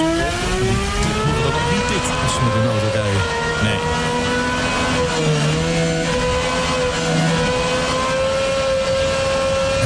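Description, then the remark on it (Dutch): The engine of a Valkyrie hypercar screams loudly as it revs past 10,000 rpm, its piercing, Formula 1-like tone holding steady, dipping briefly and climbing again for several seconds, with a faint voice barely audible underneath. “Het is dus de Valkyrie, voor de duidelijkheid.”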